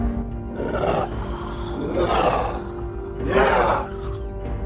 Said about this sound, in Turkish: Grup kendi arasında konuşmasını sürdürürken tünellerden tarifi imkansız böğürtülü iniltili sesler yükseldi.